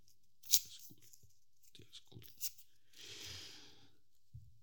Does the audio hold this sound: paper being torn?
yes